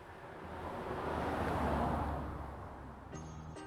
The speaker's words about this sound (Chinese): 小汽车缓缓停靠。